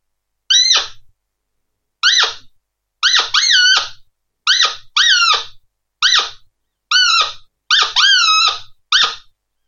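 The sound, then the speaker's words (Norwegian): A hunting lure call repeated about a dozen times in irregular bursts, each a loud, high, squealing note, somewhat longer than the contact call, that bends sharply downward with a cracking break at its end, clear with no talking. “Eh, det blir en litt lengre, litt lengre lyd enn den kontaktlyden, og en litt sånn avsluttende knekk på slutten av lyden.”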